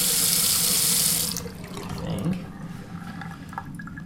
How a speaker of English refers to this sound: And 3 point, so 0.93 liters uh, gallons per flush. So it's a low, definitely a low flow toilet.